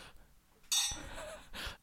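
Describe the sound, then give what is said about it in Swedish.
Glasses clink together once in a closing toast, bright, the ring lingering briefly before fading under soft breathing; no one speaks. “Jag tror vi eh, måste avsluta nu. Eh, med, med, den här skålen mm.”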